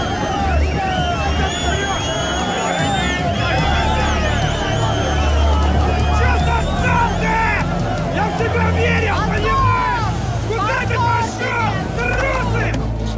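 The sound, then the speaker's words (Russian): A dense crowd of agitated, aggressive men shouts and clamors at once, loud, with a steady low rumble underneath for the whole stretch and no single voice standing out, as the crowd rocks Tarasov's car outside a hockey arena on a late rainy evening. “Толпа раскачивает машину, опустив стекло, Тарасов хватает кричащего мужчину за отворот плаща.”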